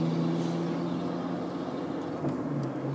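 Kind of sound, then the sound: vehicle, car engine running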